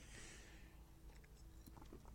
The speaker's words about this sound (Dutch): Even een slokje water, sorry.